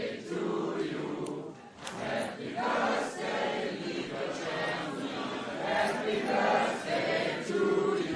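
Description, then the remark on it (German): A crowd of voices sings a birthday song together for a 22-year-old woman, live on the radio, loud and steady for several seconds, with a slightly ragged, full sound as many people join in. “so, wir stimmen jetzt also ein. Achtung, drei, vier. Ihr könnt ruhig lauter singen.”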